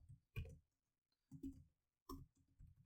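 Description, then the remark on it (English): Soft bursts of typing on a computer keyboard into an open Google Doc come in three short clusters of rapid clicks, separated by brief pauses. The tapping is quiet, with no voices. “Mm, hear that typing sound”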